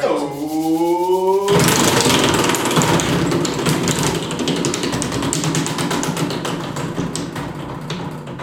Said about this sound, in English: let's have a listen to the winner's wheel again and find out who is winning the second scooter, courtesy of our friends over at Pure Scooters.